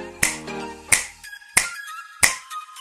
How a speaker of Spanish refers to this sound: como un chasquido de dedos.